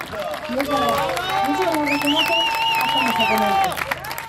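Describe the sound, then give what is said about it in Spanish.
A crowd of supporters at a political campaign rally for a candidate claps steadily throughout, dense bursts of applause mixed with raised voices and cheering that hold loud for about four seconds before easing slightly at the end. It is somewhat windy. “Es la persona que siempre rompe el primer aplauso.”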